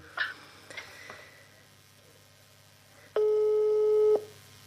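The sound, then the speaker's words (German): A phone line's ringback tone sounds once as a steady, moderately loud one-second beep, after a few faint clicks and short blips, with no one talking. “Man hört es klingeln.”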